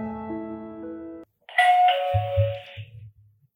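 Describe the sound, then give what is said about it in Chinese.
A doorbell plays a short melodic chime of stepped electronic notes, pauses briefly, then sounds a second brighter, buzzier ring over a few low thuds. No one speaks. “好，你等一下，我给你开门啊。”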